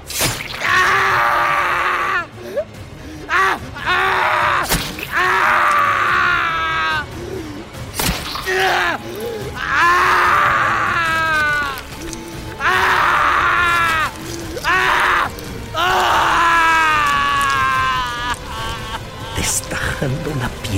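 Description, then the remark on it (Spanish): A man groans and screams in pain as a dagger is driven into his back, in a series of loud, strained cries lasting several seconds each, broken up by sharp impact sounds and brief pauses. “gritaba de dolor.”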